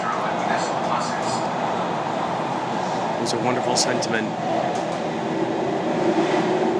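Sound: subway train interior rumble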